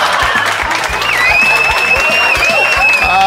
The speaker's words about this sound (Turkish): Aha. Değerimi bilen bir dinleyicilerim var o kadar. Ayakta alkışlıyorlar beni. Otomobil kullanırken hem de.